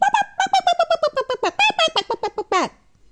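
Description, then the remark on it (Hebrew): A voice imitates a monkey with a rapid, rhythmic string of high, excited hooting calls, about eighteen short bursts over nearly three seconds, loud, rising to a final shriek. “אני מקווה שאני עושה קול של קוף.”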